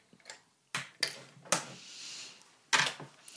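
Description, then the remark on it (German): Sharp metallic clicks and snaps from a sewing machine presser foot being changed to a zipper foot, four distinct clicks at irregular intervals, with faint handling rustle and no talking. “Genau, ich wechsle dann jetzt auf jeden Fall auf den Nehmer, äh, hier den Reißverschlussfuß.”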